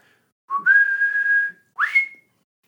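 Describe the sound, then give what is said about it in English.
A person whistles the upward tritone motif from West Side Story, a sustained note that jumps upward, followed by a brief higher note that rises and holds. The whistle is clear, with silence around it. “Ooh, that was a bad whistle.”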